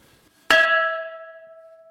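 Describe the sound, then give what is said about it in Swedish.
A single loud strike of a large, thick, very old bell in a castle, rung by pulling a rope: a sharp metallic clang followed by sustained ringing tones that slowly fade over more than a second, heard alone. “Det lät svinhögt. Det lät jäkligt högt. Och tjock och stor den här klockan var. Riktigt gammal.”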